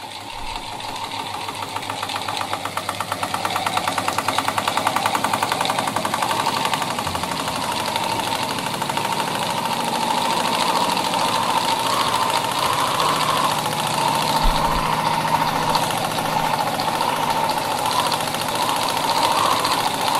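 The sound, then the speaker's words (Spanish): A small electric fan built into the top of a microphone-like device whirs steadily, its motor giving a dense, buzzing mechanical drone with a fast rattling pulse that holds constant throughout, with no voices. “Este es como un micrófono y tiene un ventilador eh, sobre, sobre el micrófono como incrustado.”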